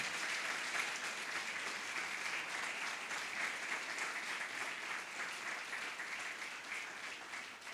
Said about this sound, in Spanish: ¿Por qué no le das un aplauso al Rey?